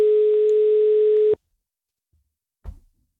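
A steady, droning telephone ringing tone on an outgoing direct call sounds for just over a second, then cuts off abruptly, followed after a short silence by a brief clunk like a handset being picked up.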